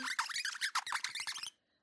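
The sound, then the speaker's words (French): A quick run of high-pitched foley squeaks and chirps, made by a person imitating little mice, rapid, lasting about a second and a half before stopping abruptly. “Voilà, des petites. Euh, des petites. petites souris.”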